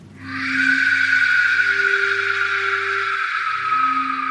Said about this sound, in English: It said you would know the Aztec warriors were approaching your village when you heard this whistle.